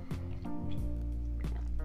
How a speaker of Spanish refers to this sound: Ay, cabrón, se me fue la voz. Un traguito de agua.